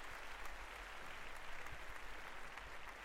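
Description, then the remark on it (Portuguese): A hall full of people at a society reception bursts into applause as a guest enters, a dense, steady wash of many hands clapping at once that holds evenly throughout without building or fading. No one speaks over it. “O pequeno aviador entrou, com o seu smoking e os seus passos confiantes, a sala irrompeu num aplauso.”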